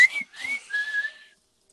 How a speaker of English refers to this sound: And the whistling. You gotta have the whistling. It was great.